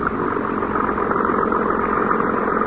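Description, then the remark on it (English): A cabin cruiser's motorboat engine runs with a steady, continuous rumbling drone, loud throughout, as the boat backs out of a boathouse into clear water on a river, with no pauses or voices. “boarded the cabin cruiser. And within a few minutes, the boat was backed out into clear water.”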